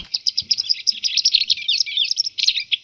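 A wagtail sings a rapid, continuous run of high, twittering chirps, clear, with faint low rustles underneath and no voices.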